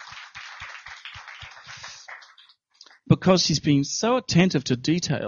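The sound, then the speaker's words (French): A burst of audience applause for the people who are helping, with a steady, rhythmic clapping pulse, runs for about two seconds and fades out. After a short pause, a person starts talking. “Peux les applaudir.”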